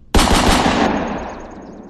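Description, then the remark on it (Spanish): A sudden loud burst of gunshots fired at night in the woods at a snarling dog-like beast, hitting it in the chest: several rapid cracks blurring together in the first second, followed by a long fading echo with no voices. “Logró detonar algunos proyectiles que le impactaron en el pecho.”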